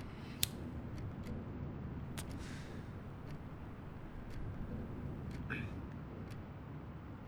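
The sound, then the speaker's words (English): A clock ticks with faint, sharp clicks at a slightly uneven pace over a steady low rumble of room noise, with no clear speech. “That fucking clock.”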